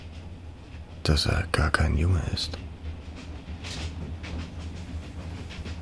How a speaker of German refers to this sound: Es ist kein gutes Gefühl, wenn ein zwölfjähriger Junge sich auf die Mitte einer Eisenbahnbrücke stellt und hinunter in den Fluss schaut. Dann kommt auch noch ein Zug, aber.